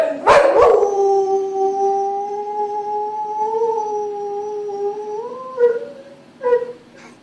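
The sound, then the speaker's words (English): A bull boxer dog lets out a sharp bark, then a long, steady, wavering howl lasting several seconds, ending with two more short barks. Fairly loud, with no talking. “what is your dog's name, and what kind of dog is it? Uh, his name is Happy.”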